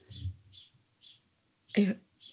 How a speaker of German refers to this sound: Der ist ja saulaut, der Vogel. Ja, wow. Wo ist der? ah, der saß hier direkt am Fensterbrett.